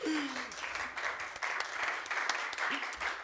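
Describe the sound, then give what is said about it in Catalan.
A crowd applauds steadily, a dense wash of many hands clapping at even loudness throughout, with a few brief whistle-like tones rising above the noise. “Podeu aplaudir, sí.”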